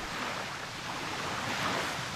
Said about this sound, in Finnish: me kun lähdetään keikalle, niin useimmiten on sitten kova tuuli, niin kuin tänään.